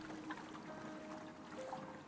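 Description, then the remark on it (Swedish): Oars splash and churn through lake water as a grandfather rows a boat steadily along, a continuous watery swishing with no one speaking. “Morfar började genast att ro.”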